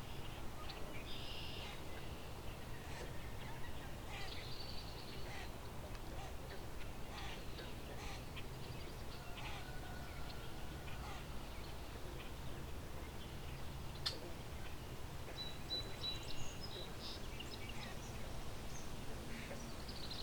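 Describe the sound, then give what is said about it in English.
A common gallinule gives a series of clucking, chattering calls, repeated over steady outdoor background noise with faint chirps of other birds, including a song sparrow, mixed in. “So that's the common gallinule.”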